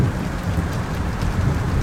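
Steady, dense rain pours down with a deep low rumble of thunder rolling underneath, heard during a drive in a car, a continuous, fairly loud wash of sound with no voices.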